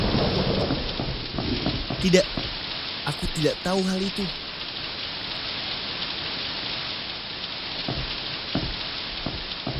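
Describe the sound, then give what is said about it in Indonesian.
A thunderstorm with heavy rain pouring steadily throughout, a dense continuous hiss, and a low rumble of thunder underneath. A person speaks briefly near the start over the downpour. “Apa Anda tidak tahu kalau tempat paling berbahaya di rumah saat badai yang buruk seperti ini adalah di dekat perapian?”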